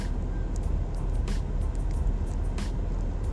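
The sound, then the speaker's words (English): A bus idles with a steady, heavy low engine rumble that doesn't change, broken by two brief airy hisses. No one speaks. “Okay, now what's wrong with this bus? Just sitting here.”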